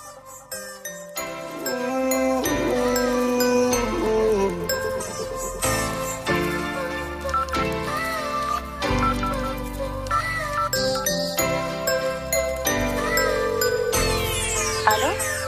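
A French rap song from 2016 plays its intro at full volume: bright, chiming melodic tones ring over a deep bass line in a steady rhythmic pattern, with no vocals yet, ending on a rising sweep.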